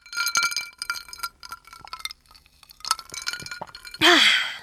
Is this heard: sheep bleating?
no